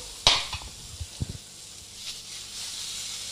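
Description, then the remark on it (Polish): Eggplant slices being turned in a hot pan: a sharp utensil clink, then a few soft taps and knocks, all over a steady sizzling hiss that swells toward the end. No one speaks. “Więc przekładam bakłażany, bo e, troszeczkę się szybciej upiekły niż, niż to było oczekiwane.”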